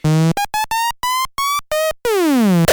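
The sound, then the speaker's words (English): A buzzy synthesizer plays a low held note, then a quick run of short staccato notes stepping upward, ending with a long bright tone that glides steadily downward. Loud and close, no voices. “Does your synthesizer sound like this?”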